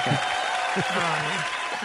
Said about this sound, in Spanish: Por los aplausos, por los aplausos. por los aplausos.